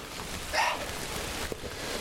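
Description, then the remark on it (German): Rain dripping from forest trees makes a steady, soft hiss, with one sharper drip standing out near the end and a brief high chirp early on. No one speaks. “Der Wald regnet. Ich hoffe, dass es nur der Wald ist.”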